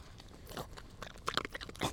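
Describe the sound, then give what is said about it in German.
A dog crunches a biscuit, a run of sharp, irregular crackling bites and chewing with bright, brittle snaps, moderately loud, and no voices over it. “So, einmal Kekse für die Hunde, noch einen Schluck Kaffee.”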